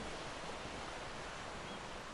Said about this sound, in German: Möwen schreien in der Ferne und die Wellen rauschen sanft in deinen Ohren. Du genießt die Sonnenstrahlen, die Geräusche und den Klang des Strandes.